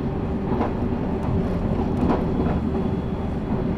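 The limited express Azusa No. 30 rolls along the rails of the Shinonoi Line and Chuo East Line between Matsumoto and Okaya with a steady, loud low rumble, broken by faint periodic clacks of wheels over rail joints and a thin high whine riding on top.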